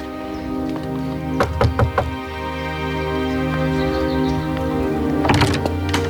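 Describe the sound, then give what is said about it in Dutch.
Knocking on the front door of a house on a picturesque street of step-gabled houses in a small village in the north of the Netherlands, on a Sunday: a quick group of about four firm raps, a pause, then another short burst of knocks, all over a steady low background hum with no voices. “Maar de bel doet het niet. Dat was kloppen.”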